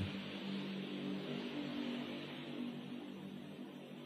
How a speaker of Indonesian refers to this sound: nah ini ini kebetulan ya ada suara motor